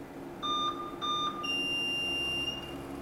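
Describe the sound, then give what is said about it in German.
Electronic patient-monitor beeps for heart and circulation in the operating room of the Reichenbach hospital: two short high tones repeat, then a longer, higher sustained tone takes over, steady and clear over a low background hum, with no talking. “Brit Heidenreich bedient die Überwachungsgeräte im Operationssaal des Reichenbacher Krankenhauses. Herz, Kreislauf.”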